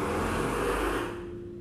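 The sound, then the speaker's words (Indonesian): A loud motorcycle engine roars on a main road, holding a steady droning pitch before easing off as it passes, with no voices. “aduh skip suara motor berisik banget”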